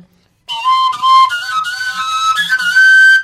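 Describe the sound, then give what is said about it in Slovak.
A breathy, whistle-like straight pipe with no finger holes is blown without covering any holes, stepping through a few sustained high overtone notes that shift in pitch over about three seconds, loud and steady with no talking. “Kdekoľvek vo vesmíre by bol taký istý ten súzvuk v trúbke nejakej rovnej, bez dierok, ale, to som nepoužil žiadnu dierku, hej, len zosilňujem zvuk.”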